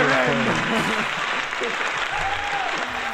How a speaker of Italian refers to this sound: Fagli l'applauso.